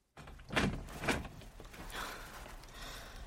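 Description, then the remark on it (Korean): A bedroom door opens with a couple of soft knocks and a creaky swing, followed by faint rustling. “마리는 제이의 방문을 열었다.”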